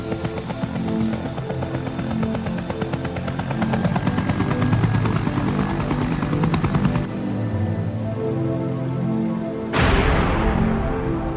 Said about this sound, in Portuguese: Sem mais ameaças para enfrentar, Jill aguarda que seus companheiros a alcancem, e assim que Brad pousa no helicóptero, agora livre de aberrações biológicas, os sobreviventes dos Stars adentram o um meio de transporte voador.